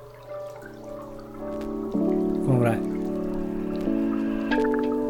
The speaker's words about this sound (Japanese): ここにね音をかぶせます今このなんか水の音聞こえてますけどあ音大きいかもしんないちょっと音下げようかな